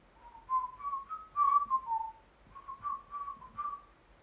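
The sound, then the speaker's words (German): Someone whistles a short melody, clear tonal notes rising and falling in two phrases with a brief pause between them, moderately loud with no talking. “Aber das war jetzt nicht gesummt, sondern ge Nee, gepfiffen.”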